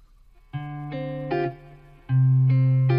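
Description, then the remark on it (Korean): An electric guitar, played through a single preamp with a little reverb effect, plays a short phrase of sustained, ringing notes with a reverb-washed tone, each note blooming into the next before a louder final chord rings out, with no voices. “이게 지금 이펙터링을 리버브를 한 건가?”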